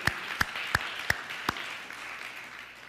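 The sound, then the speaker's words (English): A group applauds steadily to give God a hand, with five sharp, evenly spaced claps standing out at the start before fading into a softer, continuous patter of clapping. “If you believe it, give God a hand today.”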